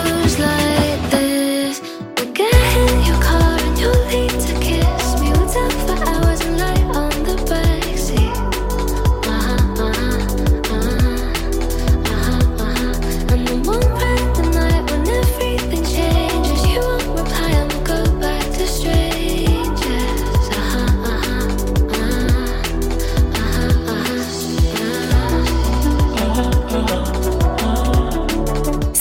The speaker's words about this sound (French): une musique qu'on aime écouter le matin pour se réveiller.